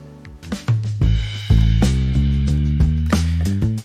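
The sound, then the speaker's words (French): Groovy acid jazz generated by artificial intelligence plays loud, with a deep, punchy bass line, sustained keyboard chords and crisp rhythmic hits driving a steady beat, with no voices. “Et si jamais vous êtes plus d'humeur, Guillaume, à écouter un groovy acid jazz, cela donnera ça.”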